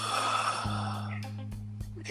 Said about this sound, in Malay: kau menguap.